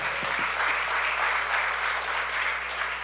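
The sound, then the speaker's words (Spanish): An audience applauds with sustained, dense clapping that holds steady in loudness for a few seconds, a broad hiss of many hands with a low hum underneath. “¿Cuánto le dan un aplauso fuerte?”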